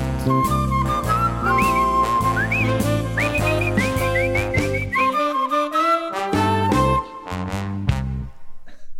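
A bright whistled melody glides and trills over a full band with bass and drums, loud and upbeat, with no one talking.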